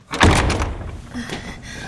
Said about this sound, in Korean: 윤영숙이 예배당 문을 열고 들어가자 기다리고 있던 최수양이 얼른 문을 닫았다.